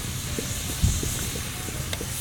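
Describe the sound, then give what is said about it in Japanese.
A close, steady hiss of a wood campfire while camping, with scattered soft crackles and a single sharper pop partway through, heard alone with no talking, on a cloudy day in the rainy season. “はいということあいいねいい音鳴ったいい音鳴ったねはいということで今焚き火をねしております。”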